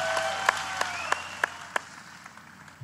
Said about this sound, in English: That does deserve a clap. Yeah, Nine bloody all All-Star games. That is consistency.